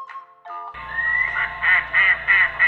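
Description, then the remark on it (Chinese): A duck quacks in a quick rhythmic run of about four loud, nasal calls over a steady low hum, after a few short tonal notes at the start. “呱呱呱！蜘蛛，你要不要跟我一起去游泳？”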